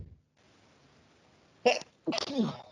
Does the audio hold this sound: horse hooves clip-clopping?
no